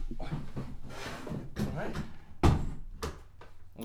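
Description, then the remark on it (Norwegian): A door is pushed shut with a single firm thud partway through, surrounded by shuffling, handling noises and people talking quietly. “Ja Så lukker vi døra.”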